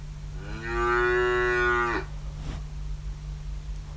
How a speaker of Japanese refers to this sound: そうなんですちょっとこの牛の音を使っていこうかなと